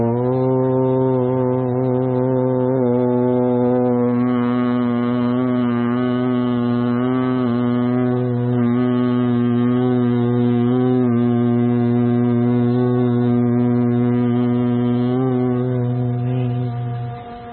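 A long, steady chanted Om hum in Omkar Gunjan meditation, a deep resonant voiced drone that holds loud and unbroken for the whole stretch, with rich overtones and only slight wavering in pitch.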